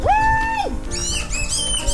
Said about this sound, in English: A duck. A black bellied whistling duck.